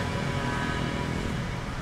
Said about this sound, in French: À gauche, le bruit des motos, des voitures.